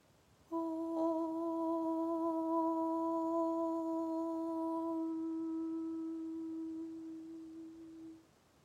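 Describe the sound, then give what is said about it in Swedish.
A single long chanted Om held on one steady, fairly high pitch for about eight seconds, clear with no other sounds, its upper overtones thinning before it fades out. “Det här är ljudet av orm i den högre tonarten. Jag ska ljuda den högt så att du kan använda den, skapa den tonen inom dig själv.”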